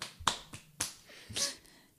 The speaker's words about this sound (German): Kennt, kennst du diese Klatschteile, die aussehen wie so zwei Hände, die dann so zusammenschlagen? ja.